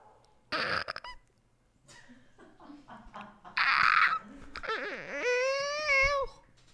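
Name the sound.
voice imitating a cat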